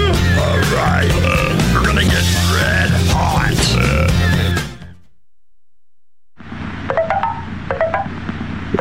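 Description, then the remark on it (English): Coffee percolating in a pot: loud, busy gurgling and bubbling with hissing steam, a brief silent gap, then a duller bubbling hiss with scattered pops resumes. “What's that sound? Why, that's the sound of WMSE's Radio Roast Coffee percolating in a coffee pot.”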